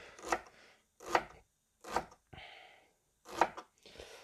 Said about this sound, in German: So, die schneiden wir dann auch wieder in ganz kleine, feine Würfelchen, weißt ja, von oben runter in dünne Streifen schneiden und dann quer dazu, dass du dann die Würfelchen hast. So. Zap, zap, zap.